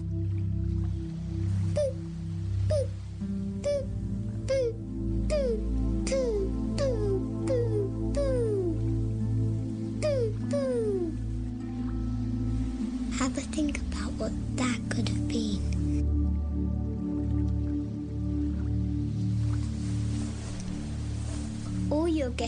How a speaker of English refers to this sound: but the answer was a microwave.